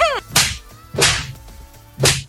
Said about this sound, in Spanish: déjame darte yo unas cachetadas para que veas que te despiertas